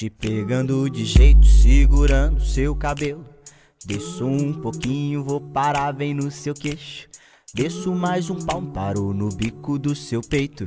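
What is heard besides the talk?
band song playing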